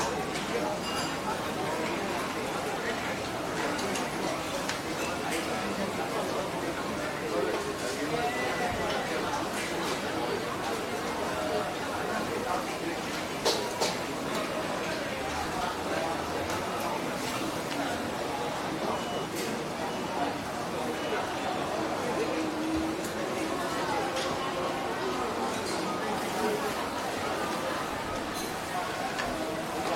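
A busy open-air hawker centre, an everyday eatery for ordinary people: a steady wash of many diners chattering, with scattered clinks of dishes and cutlery cutting through the crowd noise throughout.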